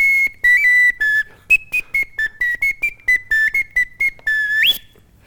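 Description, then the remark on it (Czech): A small handheld whistle, worn around the player's neck, plays a quick, lively run of short, shrill notes, several longer ones mixed in, closing on a rising note. Fairly loud, with no talking. “Mimochodem, vy máte na krku, to je píšťalka.”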